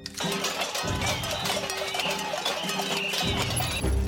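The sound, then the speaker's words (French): Protesters bang pots and pans in a loud, continuous metallic clatter to greet the French president during his visit to Vendôme, Loir-et-Cher, France. Dense clanging fills the scene without pause, with a low rumble of voices underneath. “Le président, une nouvelle fois accueilli par des casseroles et des manifestants, hier lors de son déplacement à Vendôme dans le Loir-et-Cher.”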